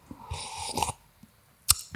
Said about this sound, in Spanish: Ah, trago dramático.